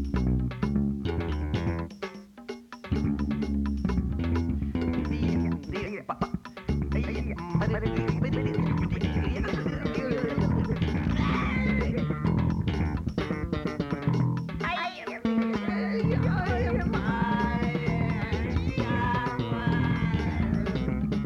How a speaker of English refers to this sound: That is the sound of the teacher strike at Berklee College of Music in 1986. April of 1986, the teachers went on strike and things got a little weird.